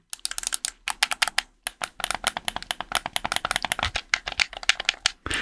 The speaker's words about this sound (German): Ich mache hier nochmal klicke die Klick, Klick, Klick, Klick, das Klack, Klack, Klack. Und zwar äh, ist es der Nixie GameCube Controller